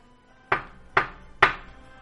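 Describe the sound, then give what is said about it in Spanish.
Three sharp knocks on a door, evenly spaced about half a second apart, fairly loud, each hit ringing briefly before fading, with no voices around them. “dice que siempre, siempre que contaba esa historia, escuchaba un nombre y acto seguido en la puerta Así.”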